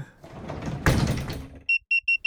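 A bedroom door swings and shuts with a loud thud amid rustling movement, followed by four short, evenly spaced high electronic beeps.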